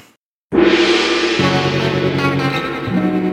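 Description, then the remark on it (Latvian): After a brief silence, a loud, bright musical jingle bursts in and holds steady, its tones shifting in a couple of steps, a signal tune announcing the first round of a game. “Tagad signāls pēc signāla pirmā kārta.”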